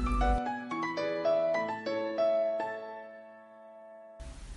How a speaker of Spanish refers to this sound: Por ejemplo, los sonidos. ¿Has escuchado el rington de iPhone? ¿El ringtone de Nokia?